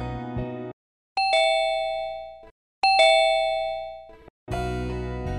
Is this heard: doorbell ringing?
yes